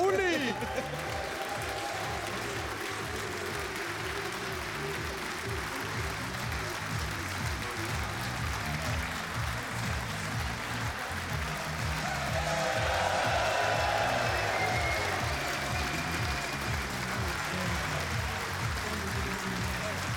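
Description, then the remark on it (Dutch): A hall full of people applauding and cheering for a guest, a former Feyenoord footballer, a dense steady roar of clapping and voices that swells louder partway through and carries on without a break. “Ik geloof dat het gejuich van de zaal al genoeg zei over hoe populair je bent.”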